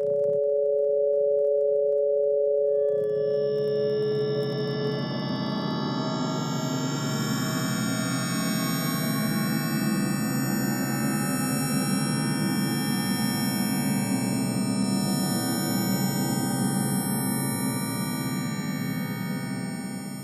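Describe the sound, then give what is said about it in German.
Sonified spider web vibrations: two steady pure tones open, then a dense, shimmering cluster of eerie layered tones swells in and drones continuously at a strong level, with no voices. “Soll heißen, ist das Netz sogar Teil der Spinne und hören wir damit nicht den Spinnen beim Denken zu.”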